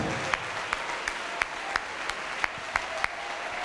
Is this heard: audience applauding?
yes